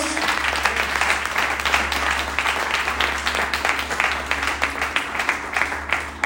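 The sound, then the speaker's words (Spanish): An audience at a sermon bursts into loud, sustained applause for the love of God, many hands clapping in a dense, steady wash with a low hum underneath throughout. “Alguien le aplaude fuerte al amor de Dios.”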